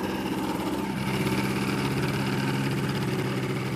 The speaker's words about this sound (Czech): Zrovna pojíždí tady Ultralight.